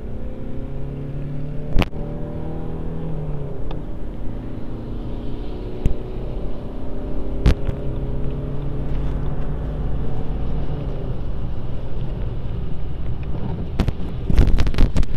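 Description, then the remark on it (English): A BMW car engine revs and accelerates for about fifteen seconds, its droning tones rising in pitch under steady wind rumble, with a few sharp clicks and a cluster of knocks near the end. “the acceleration of a BMW.”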